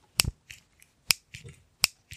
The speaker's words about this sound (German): Hört man doch, ist ein elektronisches Feuerzeug.